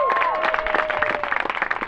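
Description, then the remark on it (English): An outdoor crowd at an event hosted by machinists claps steadily, many hands together in a dense patter, with a brief high whistle or voice rising above the applause near the start. “uh, hey, a round of applause for the machinists for having us here.”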